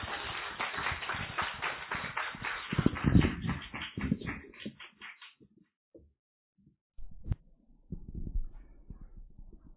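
A crowd claps steadily for several seconds, the applause thinning out and dying away, followed by a few scattered knocks and shuffling noises in a quiet room.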